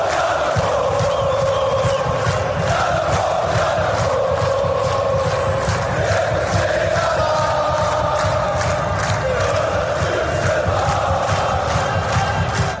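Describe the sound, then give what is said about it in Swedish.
A large group of voices sings together in sustained, loud chanting notes, the pitch shifting a few times, with a steady rhythmic pulse underneath throughout. “kan vi få höra kören nu?”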